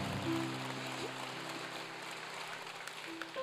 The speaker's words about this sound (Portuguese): Essa palma tá vagabunda.